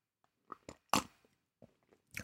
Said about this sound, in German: Und schmatz extra mal. Mhm. Das waren jetzt die besten zwei Sekunden eures Lebens.